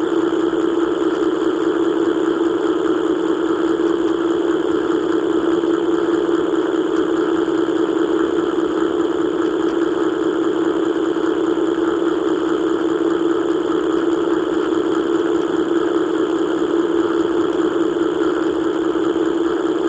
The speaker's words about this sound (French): Et quand on entend par exemple ce vrombissement pris dans cette base de données appelée Sound Mountain, on se dit qu'il aurait très bien pu être à l'origine de la bande son d'Eraserhead.